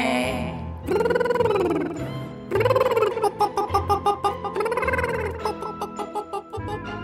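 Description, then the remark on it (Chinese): A voice imitates a duck's quacking in repeated bursts of nasal, harmonic-rich calls, then quicker choppy quacks in a rhythmic series, fairly loud with no other sounds. “嘎嘎嘎，嘎嘎嘎，嘎嘎嘎。”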